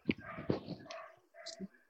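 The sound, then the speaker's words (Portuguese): A dog barks several times in quick, uneven bursts, moderately loud, with voices talking alongside the barking. “a gente tem um cachorro latindo aí.”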